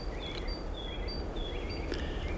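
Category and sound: bird, birds chirping outdoors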